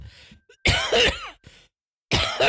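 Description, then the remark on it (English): A few loud coughs in quick succession, harsh and throaty, with short silent gaps between them and no talking. “Stay six feet away from me. Remember to cough in your elbow.”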